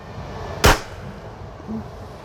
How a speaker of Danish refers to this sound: et meget effektivt bekæmpelsesmiddel, det var hans luftbøsse. Han har indtil nu skudt mindst 25 brune rotter.